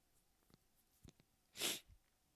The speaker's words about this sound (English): excuse me, that was a violent sneeze.